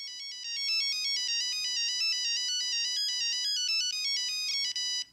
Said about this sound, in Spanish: si ustedes se metían a una página web y uno hacía clic y escuchaba la, canción y después mandaba un mensaje y le llegaba un link para instalarlo, bueno, esos eran los ringtones que nosotros hacíamos en la ah. época.